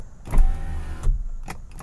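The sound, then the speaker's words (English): An electric car power window motor whirs as the glass rolls up, a steady mechanical hum framed by soft thumps, heard inside a vehicle with no one talking. “I've got these power windows hold on. So this is what it sounds like now, and I'm gonna put the windows up.”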